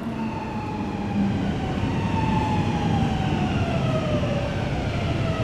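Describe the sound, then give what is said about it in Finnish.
Steady low city rumble in Helsinki, Finland, fills the background while a faint siren wails in slow rising and falling tones over it, with no voices present. “Kun heräsin, Olin kaupungissa. Kaupungissa, jonka nimi on Helsinki.”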